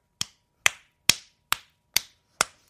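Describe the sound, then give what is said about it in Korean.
Six sharp, fleshy slaps of a person's own hand against their forehead, done as a broadcast test of whether hitting the forehead ten times reduces hunger, landing in a steady, evenly spaced rhythm at a moderate loudness, with no talking in between. “본인 이마를 이마 열. 이 정도 소리가 들리게.”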